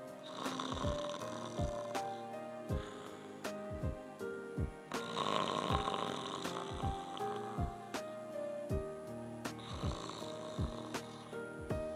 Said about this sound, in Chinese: 不一会儿呢，他们就听到了猪妈妈打呼噜的声音。